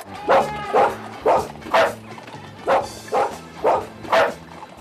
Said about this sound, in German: Timmy bellt ja immer, ähm, ich wollte es mal auf dem Klavier nachspielen, der bellt in Intervallen. Wuck, wuck, wuck, wuck. Wuck, wuck, wuck, wuck. Muss vielleicht, vielleicht kann man es auch mal eben einspielen, wie Timmy bellt. Achtung, jetzt.